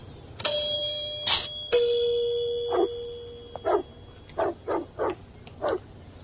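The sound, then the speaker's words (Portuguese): A doorbell chime at Ferris's house, rung by Principal Rooney, rings out twice, each tone lingering as it fades, followed by a series of short, sharp dog barks. “o diretor Rooney decide ir na casa do Ferris e o Ferris criou um sistema eletrônico que ele toca a campainha ele pergunta quem é.”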